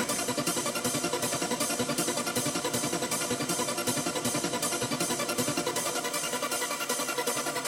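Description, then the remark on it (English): A steady, buzzy synthesizer tone played clean, without distortion, holding at an even level and pulsing gently about twice a second throughout, with no voices. “switch it in and out so you can hear the effect and the difference in the sound. So here it is clean.”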